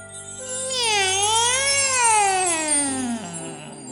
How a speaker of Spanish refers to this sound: Juntos entraron a la bodega el gato avanzó hasta la parte media de la misma, trepó sobre un costal de azúcar, dio unos maullidos muy extraños y ensordecedores, frotó sus garras y súbitamente la bodega se iluminó.